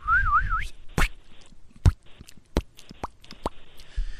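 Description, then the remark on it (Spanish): A voice imitates a drop of shower water falling to the floor: a brief wavering whistle, then about six sharp, hollow mouth pops at uneven intervals, fairly loud with quiet gaps between them. “Yo quisiera hacer una gota de esas que va así.”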